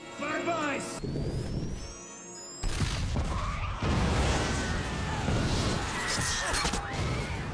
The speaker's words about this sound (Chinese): 这场爆炸几乎炸掉了整个商场。